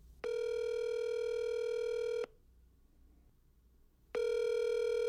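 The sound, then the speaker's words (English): A telephone ringing tone plays over the line on a call to Riverside Bank: a loud, steady electronic ring lasting about two seconds, a pause of quiet line hiss, then the ring starting again. No one speaks. “So I gave Riverside Bank a call to see if they could help me.”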